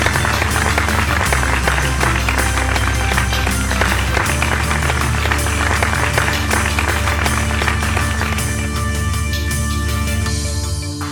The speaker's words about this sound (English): And there's some canned applause. Woo!